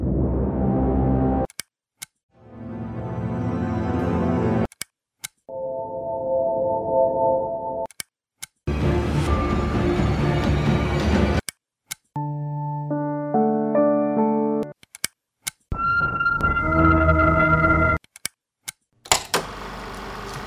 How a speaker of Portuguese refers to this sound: Sem mais delongas, DJ, solta o som, ou melhor, solta a vinheta.